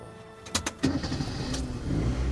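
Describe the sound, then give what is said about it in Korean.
A couple of sharp clicks as a key is turned from the driver's seat, then a car engine cranks and catches, settling into a steady low idle rumble that grows slightly louder. No one speaks. “엔진 소리가 들리자 아내는 차와 대화를 하기 시작합니다.”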